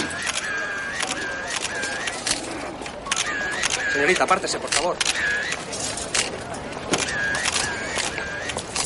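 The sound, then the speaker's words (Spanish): Rapid camera shutter clicks from several press photographers fire in quick bursts as journalists photograph the scene of a car fire on Montalbán street, with a man speaking over them and traffic rumbling in the background. “Unos periodistas hacen fotos y escriben en libretas intentando ver lo ocurrido.”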